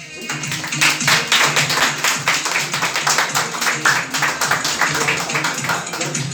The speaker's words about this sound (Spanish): Así que recibamos con un fuerte aplauso, por favor,